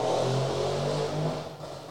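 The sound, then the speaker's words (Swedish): A motorcycle roars past, its loud, throaty engine drone shifting in pitch as it goes by, then easing off slightly toward the end, with no voices present. “Det var motorcykel, kanske.”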